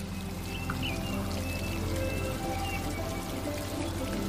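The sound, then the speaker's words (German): Steady splashing and trickling water of a small fountain runs continuously at an even level with no pauses, moderately loud, with no voices. “Vielleicht gibt es da auch einen kleinen Springbrunnen, dessen Plätschern du zuhören kannst.”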